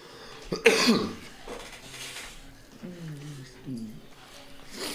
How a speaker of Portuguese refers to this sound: Mó tosse.